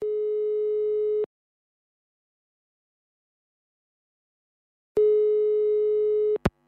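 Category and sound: signal or alarm, phone call ringing tone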